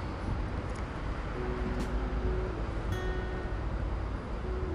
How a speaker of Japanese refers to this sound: 本当にびっくりするほど自動車の大きな行き交う音が聞こえます